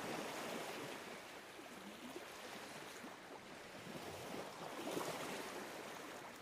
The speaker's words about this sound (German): Kannst du die Geräusche der Natur wahrnehmen? Höre das sanfte Rauschen des Meeres.